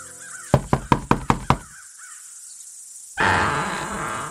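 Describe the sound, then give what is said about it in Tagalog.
Six loud, sharp knocks on a door in a quick, even rhythm, followed by a pause of near silence and then a steady rush of noise. “Nang sumunod na araw, isang malakas na katok ang gumising sa kanya.”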